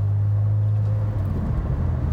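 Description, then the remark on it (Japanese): Steady low rumble of a car's interior while driving north on National Route 30 past Miyama Park after leaving central Tamano, Japan, a constant engine drone with road noise filling the cabin, loud and continuous with no voices. “場所で言うと玉野市街を抜けて今三山公園の横を国道30号線を北上しています、”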